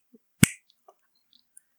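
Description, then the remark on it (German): A single crisp finger snap rings out, sharp and bright, followed by near silence with only a few tiny faint clicks. “Ähm, und äh, soll ich jetzt mit dem Finger ja. schnippen?”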